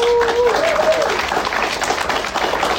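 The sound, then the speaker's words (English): A church audience at Ascent bursts into steady applause to honor its volunteer team, many hands clapping in a dense, even wash of sound, with a brief whistle-like tone rising and falling at the start. “If you could put your hands together and clap for them”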